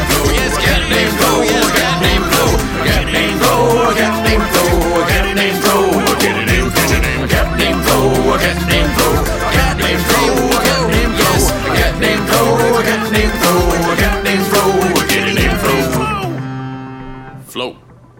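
A loud, upbeat novelty song about a cat named Flo, with sung vocals repeating the same catchy chorus line again and again over a steady band backing, then cutting off abruptly near the end.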